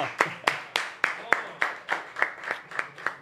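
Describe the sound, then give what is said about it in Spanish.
Applause in a steady, even rhythm: about a dozen sharp, crisp claps at a regular beat, with faint voices murmuring underneath. “¡Un aplauso, por favor, gente, coño!”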